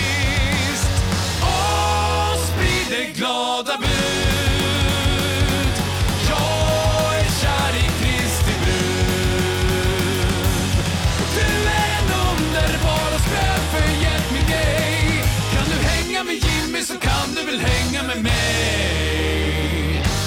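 A loud rock band song plays continuously, with driving drums, bass and a dense full-band mix, briefly thinning into short breaks before crashing back in.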